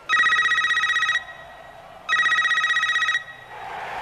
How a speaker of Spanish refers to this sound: a Agustín le suena el teléfono